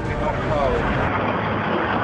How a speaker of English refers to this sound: Just waiting to get off the plane, and then we're going to go into immigration.